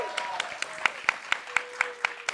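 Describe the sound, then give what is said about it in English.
An audience clap sound effect: audience clapping in a steady, even rhythm, about ten sharp claps in quick succession, with a faint sustained vocal tone underneath the first half. “I mean, an audience clap.”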